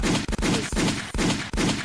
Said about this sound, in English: Holy, I gotta I gotta look some gunshots for this, yo.